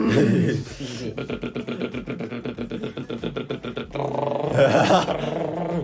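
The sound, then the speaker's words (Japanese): A person vocally imitates a motorbike engine revving: a close, loud buzzing rumble with rapid regular pulses lasting a few seconds, ending in a higher, rising rev, with voices before and after. “結構音リアルなね 結構リアルだったねかっこいい”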